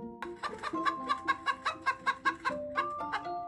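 A quick run of rhythmic, bouncy hen clucks, about a dozen evenly spaced bursts, over a sustained musical tone in the background; moderately loud.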